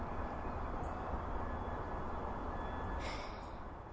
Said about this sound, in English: Is that someone from North Hykeham hoovering their car in the background? Can you hear that? yeah, typical North Hykeham, isn't it?